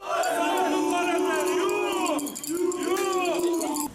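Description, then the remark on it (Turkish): A large crowd protesting in front of the Haberci newspaper office in Mersin over alleged false news shouts together in loud, sustained chanting, many voices rising and falling in two long surges with a brief dip between them. “Mersin'de kalabalık bir grup yalan haber yapıldığı iddiasıyla haberci gazetesi önünde toplantı.”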